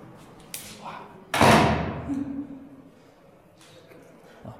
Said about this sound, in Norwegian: Skal, eh, skal, vi lukke en dør? Ja. ja.